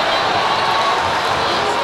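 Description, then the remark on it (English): A gymnasium crowd of Oakwood fans yells at a basketball game, a dense, steady roar of many voices filling the hall and holding loud throughout, with no single voice standing out. “The Oakwood crowd is, is starting to, to yell a little bit.”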